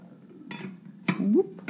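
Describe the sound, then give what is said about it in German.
A lid is set down onto a cooking pot on heat turned down low (2 of 6) with a short metallic clank, after a softer clatter, over a quiet hum with a brief low tonal sound trailing after. “Gebe den Deckel drauf.”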